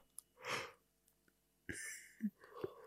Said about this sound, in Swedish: Men drar man inte lite extra syre in i hjärnan genom en gäspning? Eller? Om man blir trött så eh, behöver man väl syre i hjärnan för att liksom bli pigg. Ja, det kan vara så. Och gör man gäspning så bara... jag prova?